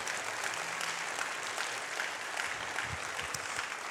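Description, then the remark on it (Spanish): An audience applauds steadily, a dense wash of many hands clapping at an even loudness throughout, with a few low thumps in the last second and no clear voices. “Vamos, a darle un aplauso como si usted lo creyera.”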